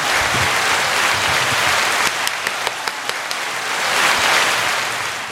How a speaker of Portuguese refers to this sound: Olha só, nunca teve tanta empolgação de palma assim.